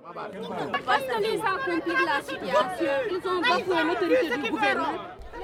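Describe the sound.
A crowd of angry women from a caravan argue loudly at a border post between southern Senegal and Gambia, debating whether to storm the border, many overlapping voices clamoring at once in a dense, agitated babble that stays continuous throughout.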